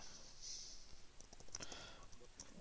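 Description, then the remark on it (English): A few faint, sharp clicks of a computer mouse, irregularly spaced over a quiet background hiss, with no talking. “I keep clicking the wrong fucking thingy, my bad.”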